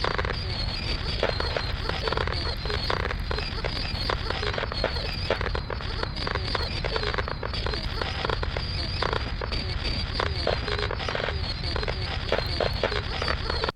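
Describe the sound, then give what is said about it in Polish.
A steady, unbroken wall of fireworks noise, generated in audio software over the whole length of the file from cut fragments of a fireworks recording layered together: dense crackling and rapid popping bursts packed tightly together, holding the same loud level without pauses. “I teraz przez całą długość pliku wygenerował mi się teoretycznie szum tych fajerwerków.”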